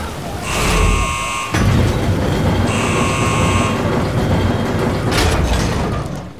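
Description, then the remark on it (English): A hydroponics pressure door sealing alarm sounds two long steady buzzes, each about a second, bright and harmonic, over a heavy continuous low rumble. “Sealing hydroponics pressure doors in three, two, one.”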